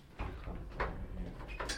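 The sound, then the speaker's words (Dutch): A locked glass door, one of a series of glass doors in a building, is tugged against its lock at the bottom, rattling and clunking in a few short bursts spread over under two seconds, moderately loud, with no voices. “oh, we zitten weer op slot. We zitten ingesloten. Daar beneden zit het slot van deze.”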